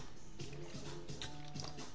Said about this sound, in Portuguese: Aqui beber a aguinha para, para continuar hidratadíssimo.